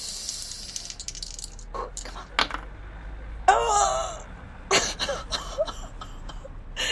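Dice rattle and clatter across a hard surface in a quick series of sharp clicks and taps, with a few separate tumbling bursts and no talking, rolled during a game and coming up eighty-three.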